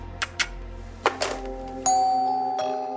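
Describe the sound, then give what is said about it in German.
A few soft clicks and taps, then a doorbell rings with two bright chime tones that ring out and slowly fade. No one speaks. “Vielleicht sollte man nicht immer an die Tür gehen, wenn es klingelt.”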